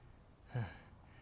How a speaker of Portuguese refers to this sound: Nossa, eu tô ofegante ainda.